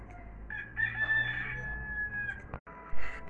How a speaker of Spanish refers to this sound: Pero eso sí, sería después de la merienda y después de que cante el gallo.